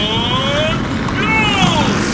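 Race car engines roar loudly and continuously as the cars pull away, their high whining pitch rising and sliding over a dense, rumbling low growl.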